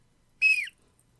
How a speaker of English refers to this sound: I have a whistle.